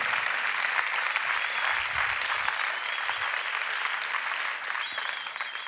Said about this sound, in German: Mega lieb, dass du da bist. Lieben Applaus für dich.